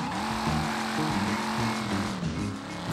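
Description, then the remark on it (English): A stolen gang car's engine revs loudly and steadily for the whole stretch, its pitch stepping up and down as if shifting gears, with a harsh, gritty noise running underneath and no voices. “Uh, we'll take this car.”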